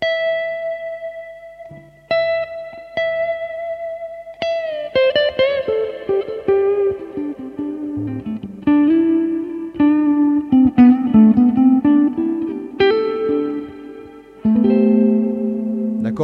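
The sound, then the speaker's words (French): An electric guitar with effects and some distortion demonstrates an intonation exercise. It holds a steady high target note, then plays a run of lower notes bent up and down in pitch, sliding above and below the target tone, with no talking. “C'est-à-dire que vous écoutez la note que vous devez viser, vous bendez avant et après.”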